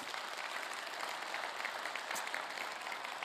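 An audience at a church service claps steadily for people as they leave, a dense wash of many hands at an even, moderately loud level with no individual claps standing out and no voices on top.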